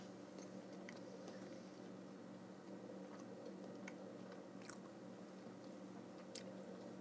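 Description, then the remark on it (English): Someone chews food, with soft wet squishing and occasional sharp little clicks and crunches over a steady low hum. No one speaks. “Chewed upon.”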